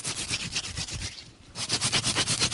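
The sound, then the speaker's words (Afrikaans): A wooden fire-drill stick is rolled rapidly between the hands against a second stick lying flat, to make a fire, producing a steady rhythmic rasping friction, a brief pause in the middle, then resuming with regular scraping strokes. “daar is twee stokkies nie enige houte kan ons probeer om 'n vuurtjie te maak ja ons kan probeer ja ons noem hierdie se groot een hierdie een kan so lê hier een is die sette bereik en dan begin jy so rol met die hand”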